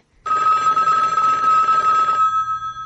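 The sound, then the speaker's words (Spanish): A telephone's second line rings loudly and continuously for about two seconds, a bright steady trill with no voices, then cuts off leaving a faint low hum. “Suena la otra línea del teléfono.”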